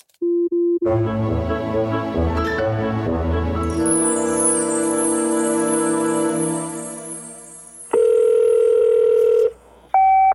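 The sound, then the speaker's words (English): A phone line tone starts briefly, gives way to a swelling electronic whoosh, then a loud, steady ringback tone sounds for a second or so as a phone call connects, before a short, higher beep cuts in. “Ring, ring.”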